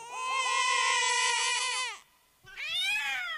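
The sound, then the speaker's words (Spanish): A baby cries loudly in two wailing bursts, a long sustained howl followed by a short pause and a second rising cry, with no other sounds. “Este, este, este, podcast también lo escuchan bebés y varios bebés. Tres. Tres bebés. Óyelo.”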